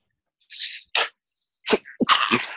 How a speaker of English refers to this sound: Sorry for that. Bless you.